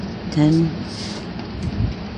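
Steady rain falls outside on March 17, 2020, as a constant, even hiss, with a short low tone rising above it near the start and a faint thump toward the end.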